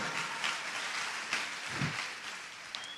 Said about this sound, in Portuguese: Olha só, você pode aplaudir o Senhor.